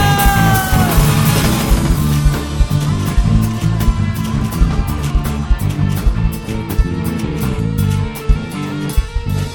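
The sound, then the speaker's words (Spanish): A loud, eerie scream wails and slides downward in pitch at the very start, then gives way to a dense, rumbling wall of noisy sound that continues throughout. “Ya los niños se espantaban con un grito fantasma.”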